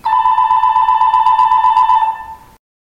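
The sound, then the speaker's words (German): A mobile phone rings with a steady, electronic warbling tone that pulses rapidly, loud, for about two and a half seconds before cutting off. No one speaks. “Da klingelt doch wahrhaftig ein Handy.”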